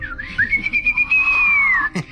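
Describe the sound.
A person whistles one long, steady tone that glides up, holds, then slowly sinks, imitating strong wind whistling through pine and fir trees while camping in the mountains, ending with a short breathy hiss.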